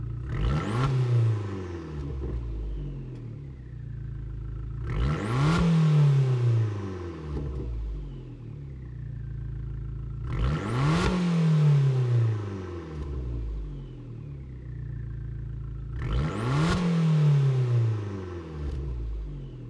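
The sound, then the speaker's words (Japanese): The 1.4-litre inline-four turbo engine of an Abarth 695 Tributo Ferrari small car revs up sharply four times at steady intervals, each rev climbing then falling back to a rumbling idle, loud with no talking. “アバルト695トリブートフェラーリフェラーリとアバルトが夢のコラボレーションキュートなボディに収められた1.4リッター直列4気筒ターボエンジンのサウンドをお楽しみください。”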